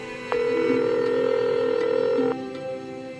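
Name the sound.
telephone number being dialed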